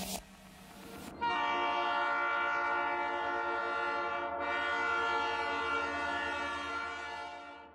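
A loud, sustained train horn blares with rich stacked tones over the rumble of a rolling train, after a brief burst of noise at the start.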